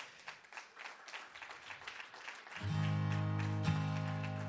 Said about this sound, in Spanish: Iglesia, ponte de pie por un momento, dale ese aplauso al Señor si puedes.